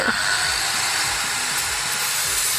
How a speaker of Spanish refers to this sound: que el otro día cogí prestada una cosita de unas obras que estamos haciendo ahora en Cibeles y a ver si con esta radial